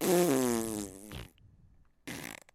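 A loud wet fart noise, buzzing and sputtering for about a second before cutting off, then a short pause and a brief second burst.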